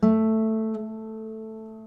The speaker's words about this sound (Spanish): va a generar lo que llamamos un armónico por simpatía. ¿Y qué es esto? Que la quinta cuerda, que es la misma, que es la, la nota de la, va a vibrar al momento de que toquemos este La. Se los hago escuchar. Tocaré el La de la tercera cuerda.